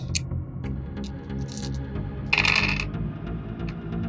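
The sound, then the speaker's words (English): Five dice tumble and clatter across a hard tabletop, rolled for a perception check in a tabletop game, a scatter of sharp clicks building to a brief rattling burst before settling, fairly loud over a low background hum. “Rolling dice, rolling dice, the fun of rolling dice.”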